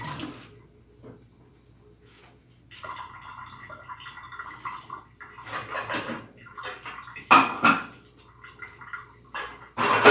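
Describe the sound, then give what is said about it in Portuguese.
A black metal cooking pot being handled, with scraping and a few sharp clanks and knocks, the loudest near the end, over faint kitchen background noise and no talking. “Olha a panela preta.”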